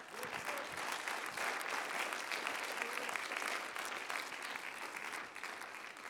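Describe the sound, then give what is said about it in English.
A large audience gives itself a hand clap, applauding steadily in a dense wash of clapping that stays full and even for several seconds without letting up. “I think you ought to give yourself a hand clap.”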